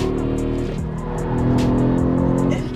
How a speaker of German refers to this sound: vor allem wenn der Fünfzylinder einmal in den Drift-Modus kommt. Laut Audi sind hier bis zu 1750 Newtonmeter pro Rad möglich.